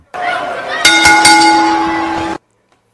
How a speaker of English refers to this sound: Referee, do you what you're supposed to do. Ring the bell.